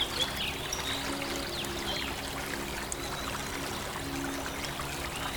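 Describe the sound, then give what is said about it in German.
A small river flows steadily beside a sheltered footpath, its crystal-clear water gurgling and trickling in a continuous, even wash, with faint bird chirps in the background and no voices. “Und etwas abseits führt dich der Fußweg zu einem geschützten Pfad, der dich entlang eines kleinen Flusses führt.”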